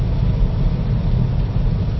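A car drives in Connecticut as it starts to rain, with a steady, continuous rumble of low engine drone and road noise holding an even loudness throughout and no voices.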